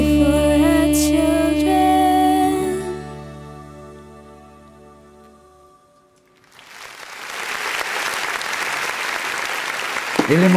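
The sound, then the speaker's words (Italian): A sustained musical chord rings out and fades to near silence, then a crowd's applause swells up and continues as a dense, steady wash of clapping until the end. “L'emozione continua, eh ve lo eh sì, faccio eh? anche a voi, l'applauso virtuale.”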